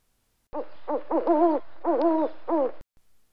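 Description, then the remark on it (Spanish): A series of owl hoots, about five in quick succession with wavering, tremulous tones, fairly loud, followed by a brief faint sound after they stop. “todas las farolas se pasaron días comentando la belleza y singularidad de aquel canto del búho, tan diferente a lo que habían escuchado hasta entonces.”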